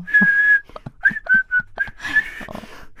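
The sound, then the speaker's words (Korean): A person whistles the theme music of the western film 황야의 무법자 (A Fistful of Dollars) in sustained and short notes, fairly loud, the tune ending with a few fainter, breathy notes that trail off. “오, 어, 휘바람.”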